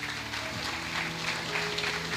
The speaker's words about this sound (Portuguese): Aplauda Jesus. Glória a Deus.